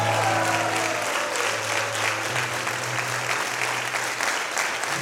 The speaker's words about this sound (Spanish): Vamos, alguien que lo reciba que le dé un aplauso fuerte al Señor.